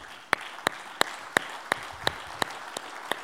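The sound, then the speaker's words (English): An audience claps in steady unison as a hand clap of praise to Jesus, nine sharp, even beats about three to a second over a soft wash of scattered hand clapping, with no voices. “If you want to be transformed today, why don't we just give him another hand clap of praise?”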